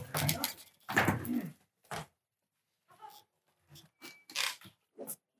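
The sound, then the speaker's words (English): A door is opened amid a few scattered clunks and rattles, with some short bursts of noise and faint voices around it. “okay, open the door.”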